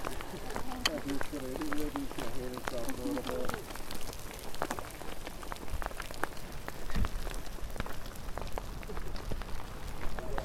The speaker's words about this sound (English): Rain's just started to cool down now. That was a bit of a shower.